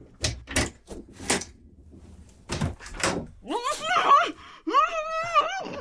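A series of sharp metallic clicks and rattles as a spare key from a bunch of keys works the lock of a locked room door, followed by a long, wavering creak of the door swinging open, fairly loud.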